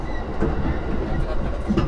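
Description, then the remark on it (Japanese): A Yamanote Line commuter train in Japan, bound for Shinjuku and Ikebukuro with Harajuku as the next station, rumbles steadily along the rails, with a continuous low roar and faint rhythmic clatter of wheels, heard from inside the carriage at a fairly constant level. “Viajando en la línea de tren Yamanote”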